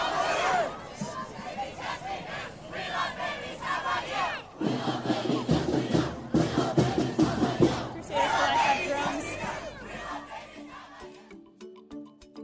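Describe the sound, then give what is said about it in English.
Two groups at the march, the Crusaders of Life and Catholic University, chant and cheer loudly against each other in a cheer-off, their voices trading in surges; one group's deeper, rhythmic shouting swells in the middle before the noise thins out toward the end. “So we've stumbled into a bit of a cheer off between two groups, the Crusaders of Life and Catholic University.”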